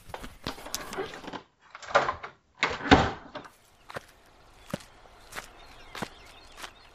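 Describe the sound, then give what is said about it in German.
A door is handled with a clatter and swing, then shut as a woman leaves an apartment, followed by steady footsteps walking away at a regular pace, crisp, with no voices. “Mit klopfendem Herzen verließ sie die Wohnung.”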